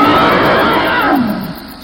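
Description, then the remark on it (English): A loud, rumbling dragon roar in a cave, woken by footsteps, rises in one long growling blast, its pitch sliding downward before it fades away. No voices accompany it. “The dragon woke up, hearing his footsteps. It roared loudly.”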